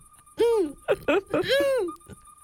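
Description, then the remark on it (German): A person imitates a midwife toad's call with clear hooting notes: a long rising-and-falling tone, a couple of short hoots, then another long, wavering note. “Und sie macht dann so...”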